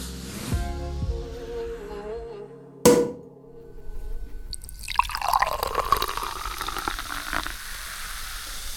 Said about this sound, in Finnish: Poksautettiinko siinä alkoholillista vai alkoholitonta kuohuviiniä? Onko sillä väliä?